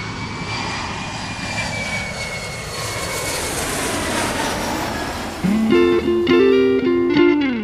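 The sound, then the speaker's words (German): A loud, steady airplane engine roar drones on continuously, with a faint high whine, and near the end a bright tonal melody rises over it. “Also dann Platz nehmen und anschnallen.”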